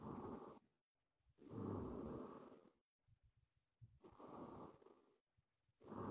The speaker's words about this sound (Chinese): 他又睡着了，你听这个呼吸声